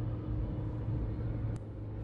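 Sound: car interior rumble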